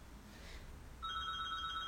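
A telephone starts ringing partway through, a steady electronic tone that comes in suddenly and holds fairly loud over a quiet background hum, with no one speaking.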